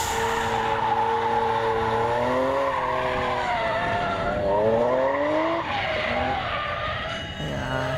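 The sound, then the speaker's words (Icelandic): A drifting car's tires squeal continuously over a loud, revving engine, the pitch sliding up and down in long wavering sweeps for about eight seconds, with no talking. “Þannig erum við sannlega að tala um drift”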